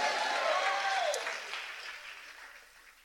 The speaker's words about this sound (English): And yet, although you hear people clap, applaud, and respond, you don't know if you totally agree because you're perplexed, you're frustrated, and you're annoyed.